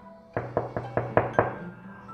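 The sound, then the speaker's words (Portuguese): Six sharp knocks on a fisherman's wooden door by a servant disguised as a merchant, in a quick, fairly even rhythm, distinct, each with a short resonant thud; no voices. “Logo mandou um criado disfarçado de mercador bater na porta do pescador, quando este já havia saído para pescar.”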